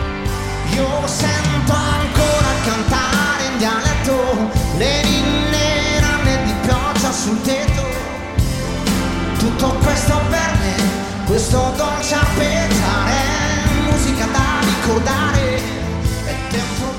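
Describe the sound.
An Italian pop song plays loud and full, a male voice singing over steady drums, bass and layered keyboards, with the dense mix continuing throughout and a brief dip partway.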